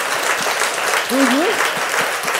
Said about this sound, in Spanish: Si usted le va a dar el aplauso, ay Dios mío, Padre.